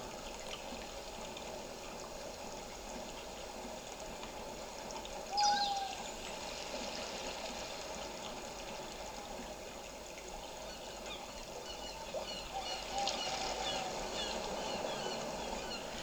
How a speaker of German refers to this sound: Du bist der einzige Mensch weit und breit, Und alles, was du hörst, ist das Rauschen des Meeres und ein paar Vögel.